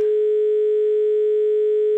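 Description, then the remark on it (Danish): A telephone busy tone after a phone-in caller from Holeby, Denmark has hung up, heard as a single steady electronic hum that holds unbroken for two seconds, fairly loud and clear, with no voices. “Og ja, jeg har en, øh, en tone i øret også.”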